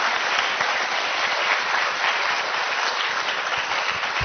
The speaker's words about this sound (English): So please, another round of applause for Secretary. Thank you so much.